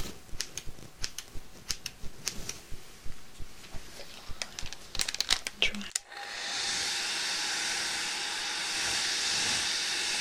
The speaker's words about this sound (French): ah, bon, le séchoir maintenant.